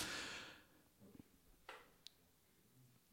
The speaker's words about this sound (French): je me dis mais qu'est-ce qu'il fait mais en fait il est en train de bailler